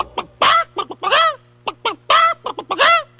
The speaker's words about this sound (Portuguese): Viu a galinha, excitadinha, a galinha falou.